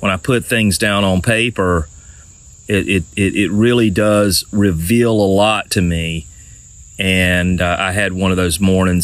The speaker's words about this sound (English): It's like a symphony out here. Uh, you can you can hear the the really hear the crickets chirping like crazy, and the the birds are are chirping also.